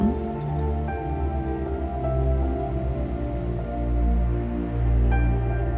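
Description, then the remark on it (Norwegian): Water from a small waterfall splashes steadily into a pool, a continuous rushing patter with no break, over a low sustained hum. No one speaks. “Du hører vannet fra den lille fossen treffe vannet i kulpen.”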